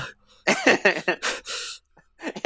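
A person breathes heavily, a quick run of loud, ragged, partly voiced gasps and huffs, then a brief pause before a few more breaths.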